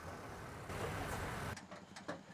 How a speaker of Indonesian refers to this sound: Mobil tanpa pengemudi bertenaga listrik berjuluk iCar, Intelligent Car ini sementara didesain khusus untuk shuttle di lingkungan kampus. iCar dijalankan dengan kombinasi teknologi berbasis artificial intelligence dan Internet of Things.